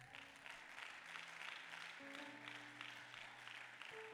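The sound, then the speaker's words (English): A church audience applauding, a steady wash of many hand claps with some low sustained tones beneath, continuing evenly for several seconds. “That ought to be worth a hand clap right there.”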